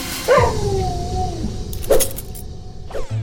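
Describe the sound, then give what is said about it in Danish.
A dog lets out a drawn-out, wavering whine, followed by two short, sharp yips spaced about a second apart, against a low background rumble. “Nu kigger jeg til siden, så fuck, der står kraften af min hund hvis siden og jeg har ikke engang lagt mærke til”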